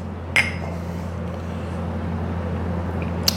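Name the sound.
mugs clinking together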